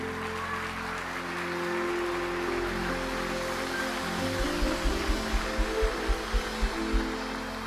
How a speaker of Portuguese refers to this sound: Desocupe as mãos se você tiver mão. Aplaude o nome de Jesus aí, por favor.